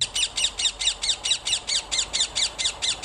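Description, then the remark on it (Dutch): A rose-ringed parakeet, a bird heard in Amsterdam parks in the Netherlands, squawks in a rapid, steady series of harsh, shrill calls, about four per second, loud with no other sounds around it. “Als je wel eens een Amsterdams park hebt bezocht, komt dit geluidje waarschijnlijk bekend voor.”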